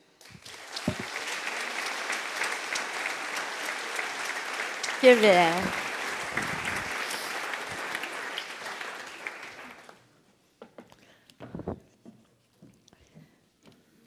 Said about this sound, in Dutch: Dames en heren, graag uw applaus voor Hedy Dancona.